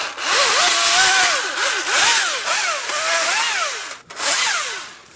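A power saw runs loud, its pitch rising and falling repeatedly as it trims the thick base of a freshly felled tree trunk, spraying many small wood chips, with a brief dip near the end before revving again. No voices.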